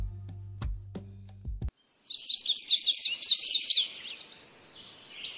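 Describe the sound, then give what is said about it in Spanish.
A bird sings a rapid, high-pitched run of chirps and trills for several seconds, clear, after a brief low rumble at the start. “Incluso hasta aves endémicas que tienen gran importancia en la conservación, como el pico amarillo, además de especies foráneas como el pato canadiense y el toche.”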